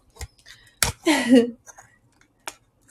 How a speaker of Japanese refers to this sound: はい。ということで今、ハサミを上のところに入れさせていただきました。